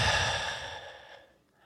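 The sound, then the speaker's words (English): A single long, breathy exhale from a voice imitating heavy breathing, loud at first and trailing off into quiet over about a second and a half. “And whatever it is starts breathing just on the back of my neck”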